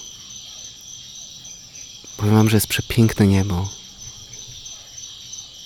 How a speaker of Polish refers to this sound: Też myślę, że słyszycie te świerszcze, to wszystko, tą dżunglę.